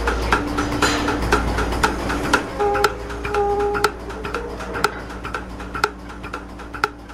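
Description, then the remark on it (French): Steady mechanical ticking from a milking machine's pulsator while cows are milked; through a membrane it massages the cow's teat. Sharp clicks repeat about once or twice a second over a low motor hum, with brief tonal whines between beats; no voices. “Ce qu'on entend, c'est la pulsation. C'est ce qui permet par un jeu de membrane de masser le crayon.”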